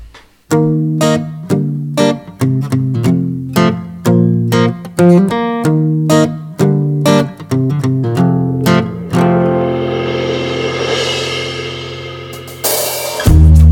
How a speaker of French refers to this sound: Là, le 10 novembre dernier, on sort, on a sorti ce morceau. et, et eh ben, eh ben, c'est le morceau que nous allons écouter immédiatement.